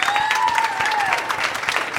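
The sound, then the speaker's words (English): A crowd at an evening live event in San Diego applauds steadily, dense sustained clapping, with a few cheers or whistles rising above the claps. “So, uh, first off, can we get a round of applause for everyone that came out tonight?”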